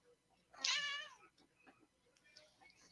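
cat meowing

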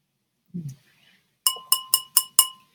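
wine glass clinking

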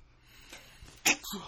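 sneeze

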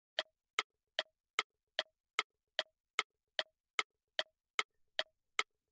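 clock ticking

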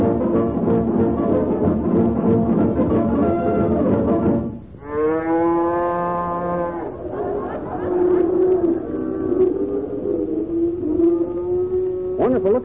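cows mooing

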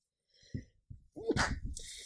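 sneeze

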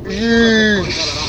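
sheep bleating

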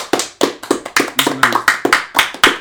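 applause

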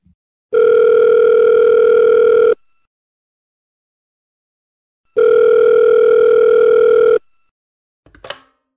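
phone line ringing

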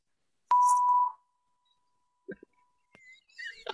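censor bleep sound effect

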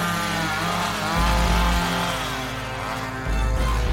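chainsaw revving

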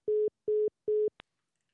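phone call dropping

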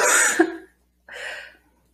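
cough

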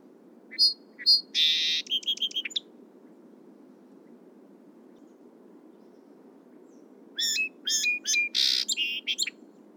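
song sparrow song

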